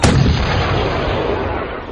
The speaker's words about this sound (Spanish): Tras volver a mirar al pueblo, donde sin lugar a dudas muchos ojos nos miraban con desprecio, vi como una de las balas surcó los aires dando justo al lado de nuestro portón.